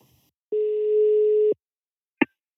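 A single steady ringback tone sounds on an outgoing phone call, a loud one-second beep, followed by silence and then a sharp short click as the line connects.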